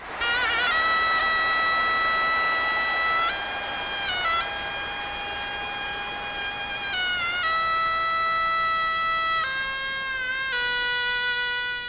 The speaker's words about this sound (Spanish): incluyeron un instrumento tradicional coreano llamado Tepianso que suena así.